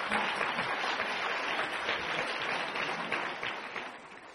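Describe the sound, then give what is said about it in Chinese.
Sustained audience applause, a dense steady wash of many hands clapping for about four seconds, fading slightly toward the end, with no voices over it. “两种来源全部写下来的有两位朋友，请大家掌声鼓励。”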